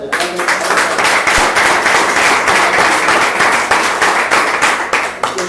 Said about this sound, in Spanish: un fuerte aplauso